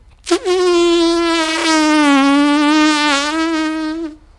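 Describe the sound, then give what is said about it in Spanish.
A steady, loud buzzing drone holds for about four seconds with a slight waver in pitch, apparently a human voice imitating bees humming at a beehive hanging from a tree. “y observó un panal de abejas colgando del árbol.”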